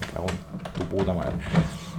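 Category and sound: machine, printer running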